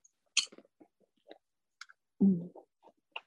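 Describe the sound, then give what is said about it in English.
Crunchy chewing of popcorn: irregular bursts of crackling munching and small clicks, with one heavier, louder crunch near the end and quiet gaps between bites. No one speaks. “I'm munching on this um”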